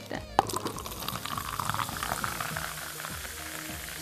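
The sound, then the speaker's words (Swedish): A non-alcoholic fizzy drink is poured into glasses on New Year's Eve: a steady, hissing stream with crackling bubbles running throughout, opened by a brief sharp clink. No one speaks. “lite bubbligt här när det nu är nyårsafton och allt”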